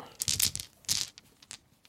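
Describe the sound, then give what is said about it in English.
Soft rustling of a small black silky bag with a logo being handled in two main bursts, followed by a few light clicks as small dice, about half the size of regular dice, are drawn out. No one speaks. “Um, have got a little black hat, silky bag, really and uh, it's got the logo on. And then I'm just going to pull these out.”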